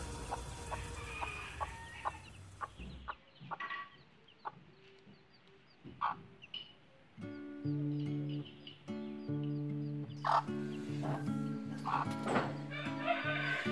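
In a backyard, chicks peep in quick, high chirps throughout while a broody hen clucks in low, drawn-out, throaty calls, growing busier and louder in the second half. No one speaks.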